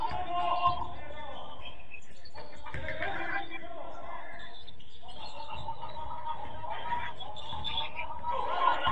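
A basketball being dribbled on a court, with repeated thuds against a noisy arena backdrop of crowd chatter and squeaks, fairly loud and continuous throughout.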